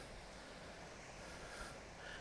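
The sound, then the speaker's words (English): Soft, steady wash of gentle waves lapping the beach shoreline at Littlehampton, UK, with faint wind noise and no talking, a low continuous hiss without distinct surges. “If I stop, maybe you can hear the waves”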